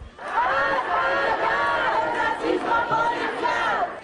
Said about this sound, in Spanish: y así se escuchó la protesta en Madrid, donde hicieron un minuto de silencio y se dirigieron a la Puerta del Sol